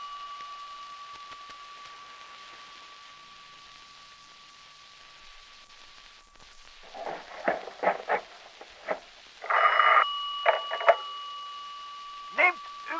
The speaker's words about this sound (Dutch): Er komt een telefonie binnen.